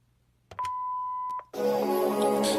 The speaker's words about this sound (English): Press play or press record. Hello, please leave a message after the tone.